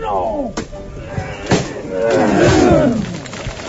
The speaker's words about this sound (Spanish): Ahí con reaño se ha escuchado el grito de los costaleros mientras tiraban al cielo el palo de María Santísima de la Misericordia.